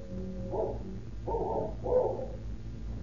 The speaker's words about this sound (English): But the only greeting they receive is the fierce barking of a cur dog which Getzweiler and King had seen loping down the road after the two retreating men.